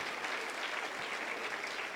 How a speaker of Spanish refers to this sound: Ahora sí podemos dar un aplauso grande al Señor. Dile gracias por tu palabra.